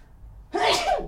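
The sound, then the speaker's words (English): A single sharp sneeze bursts out after a quiet moment, loud and breathy with a quick rising then falling tone. “Bless you. Excuse me.”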